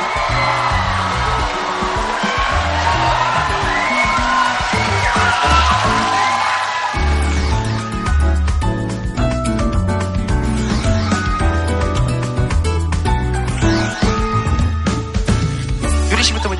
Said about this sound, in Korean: 자, 저희 패널분들 모시겠습니다. 여러분 박수로 환영해 주시기 바랍니다.